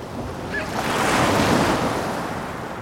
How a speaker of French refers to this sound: On est face au lagon, donc, qui est délimité par des bandes rocheuses, avec en face la barrière de corail sur laquelle des vagues s'écrasent.